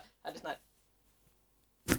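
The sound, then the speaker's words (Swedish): Soft rustling from movement, then a pause and one sharp, crisp click of a slightly damaged knee joint popping as it bends, recorded with the microphone held down at the knee, with no talking. “det ska tydligen låta om mina knän när jag böjer mig ner och sånt. Ja, men det är så det, det klickar till lite.”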